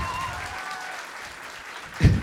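An audience claps to show they want to hear a story, in a steady, scattered patter of many hands, with faint traces of voices underneath and a brief louder thump near the end.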